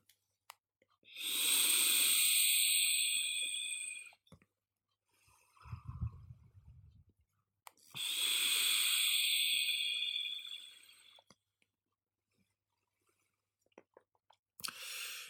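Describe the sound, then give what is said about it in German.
Two long, steady hissing draws on a vape set to 85 watts with an Oreo-flavoured liquid, each lasting about three seconds with a bright sizzling crackle, separated by a softer, lower breathy exhale. No one speaks. “Äh, ich nehme jetzt einmal einen Zug, äh, 85 Watt und schauen wir mal, was rauskommt.”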